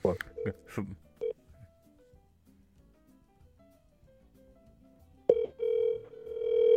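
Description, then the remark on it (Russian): A phone call being dialed on speakerphone: a quick run of short, bright keypad beeps, then a stretch of near-silence before a loud, steady ringing tone starts and holds to the end. “Так пусть поднимет сперва.”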